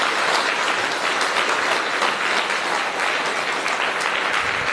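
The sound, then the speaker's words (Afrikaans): A crowd applauds a man steadily, a dense wash of many hands clapping at an even loudness throughout, with no voices standing out above it. “is dit nie wonderbaar wat die Here in 'n man se lewe kan doen nie gee hom nog 'n hande klap nie”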